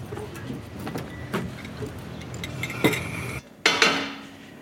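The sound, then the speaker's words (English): Dishes and cutlery clatter as they are set down on a table, with a series of sharp clinks and knocks at an uneven pace, a louder clatter near the end, and no voices. “Oh, guys, we really need to start setting the table.”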